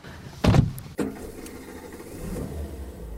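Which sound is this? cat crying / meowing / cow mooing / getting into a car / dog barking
getting into a car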